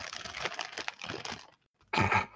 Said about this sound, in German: ich glaube, das ist jetzt meine dritte Tüte Chips, äh, die ich jetzt hier habe. Also könnt ihr wahrscheinlich hören, ASMR.